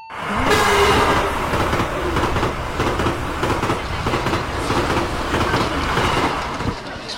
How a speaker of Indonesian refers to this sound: Penumpang yang kami hormati, sesaat lagi kereta api.